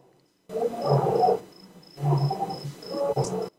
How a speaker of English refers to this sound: I don't know if you can hear the lions roaring. I'm just going to be quiet for a second.